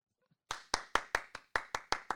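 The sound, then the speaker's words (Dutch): Nine sharp, bright hand claps in a steady, fairly quick rhythm, like one person applauding on their own, as applause for racing driver Sainz. The claps are loud and crisp, with no talking over them. “Maar, applaus voor Sainz.”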